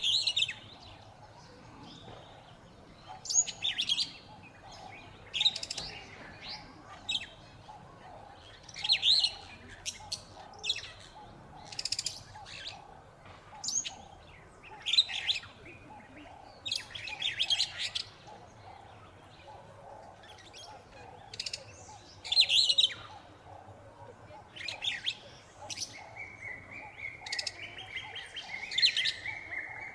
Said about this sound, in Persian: تنوع پرنده هم تو پارک به 400 گونه میرسه که فقط 20 تاشون پرنده های مهاجری که از اروپا به آفریقا اومدن و تجربه خیلی جالبیه وسط پارک ماشین رو خاموش کنید و فقط به صدای پرنده ها گوش بدید